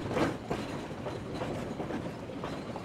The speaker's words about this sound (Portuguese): Eu estava no banco de trás de uma caminhonete e esse é o som do carro passando numa estrada de terra em Itanhaém, no litoral sul de São Paulo.